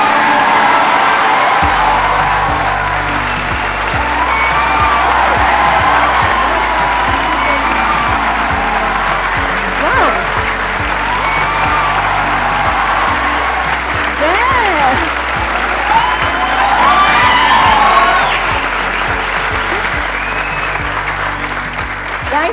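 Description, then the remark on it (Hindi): Loud, sustained applause and cheering from a large crowd welcoming Indian magician Suhani Shah fill the whole stretch, with whoops and shouted voices rising above the steady clapping and a low rhythmic music beat underneath. “हमारे साथ में है इंडिया की सबसे popular magician please gave an energetic and welcome to the one and only Suhani Shah”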